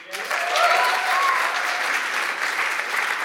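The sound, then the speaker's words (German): A large church audience claps steadily and continuously, a dense wash of applause that holds at an even level throughout, with a few brief whoops rising above it early on. “Und nochmal einen fetten Applaus.”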